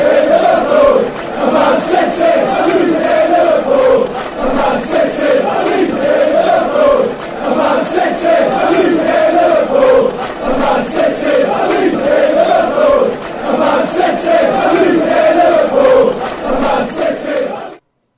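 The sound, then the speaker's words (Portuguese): A large crowd of football fans chants a song about the Manchester–Leeds rivalry in unison, loud and continuous, with a steady repeating melodic rhythm and many voices blending together throughout. “Ouviremos então a canção que fala sobre a rivalidade Manchester-Leeds.”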